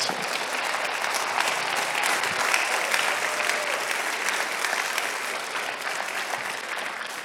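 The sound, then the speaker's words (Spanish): An audience applauds loudly and steadily, a dense wash of many hands clapping at once that fills the space without pause for several seconds, with no speech over it. “Si tú lo crees, dale un aplauso fuerte.”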